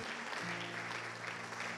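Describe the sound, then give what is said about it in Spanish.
A crowd claps together in dense, steady applause, a broad wash of overlapping hand claps that stays loud and even across the whole short stretch, with a low hum underneath. “Junte sus palmas.”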